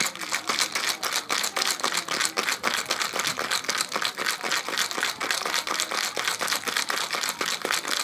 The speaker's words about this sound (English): All right, so we're gonna shake the shit out of it. We're gonna shake it until we get frost on the outside of the shaker.